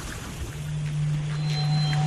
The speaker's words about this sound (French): C'est un bateau, donc euh, en fonction de l'éloignement.